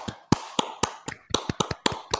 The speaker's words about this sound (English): Um, and instead, we'll, we'll we'll just clap it up for her. Why don't we clap it up for her right now?